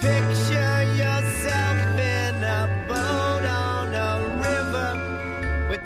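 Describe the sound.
A rock band plays a cover of a dreamy, psychedelic song at full, steady volume, with a male voice singing over sustained bass notes and shimmering, chiming guitars and keys.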